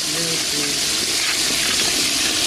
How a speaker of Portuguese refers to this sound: A descarga é o pior. Não, isso é ruim demais. Bota a descarga disso aí, eu, pá. Meta descarga, né?